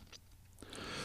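Close, wet chewing and mouth smacking, a few quick bursts building into a louder, crackly munch near the end, with no talking.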